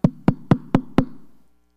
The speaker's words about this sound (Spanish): y ya parece que quieren tumbar la puerta. Pero ¿qué puede estar pasando dentro para que alguien no escuche que están tocando a la puerta?